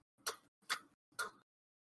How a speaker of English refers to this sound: And you can see now he has made a makeshift storage area there's a sliding uh, panel blocking the faintest light that you can see coming from inside this makeshift room. He knocks on it.